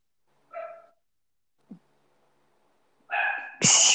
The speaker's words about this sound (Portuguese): peraí, o cachorro tá latindo muito.